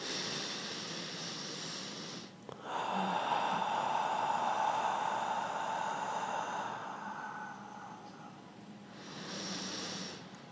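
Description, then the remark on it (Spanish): A slow, deep, calm breath drawn in to center oneself, a long airy rush that swells and holds for several seconds before easing off, with no talking. “¿Ves cómo se escucha esa respiración mucho más diferente a...”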